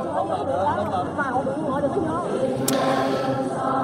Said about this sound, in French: Il y a quelques semaines euh, est décédé un homme, un évêque vietnamien, Paul Bui Van Doc. On entend là, juste derrière moi, l'atmosphère dans l'église qui accueillait euh, sa dépouille. Écoutez.